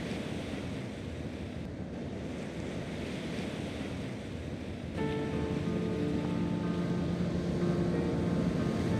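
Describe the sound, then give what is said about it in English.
Continuous rushing sea waves with a windy hiss, steady throughout. About halfway through, soft sustained musical tones fade in beneath the surf. “and far down, below the layers of air and clouds, a small but epic splash occurred somewhere between the waves of the Baltic Sea, and a coin tumbled down into the shadows of the ocean's floor.”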